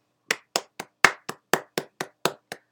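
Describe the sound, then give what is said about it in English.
One person claps about ten times in a quick, steady rhythm in applause for Stacey Abrams, each clap a sharp, crisp smack with no voices or other sounds in between. “round of applause, sister.”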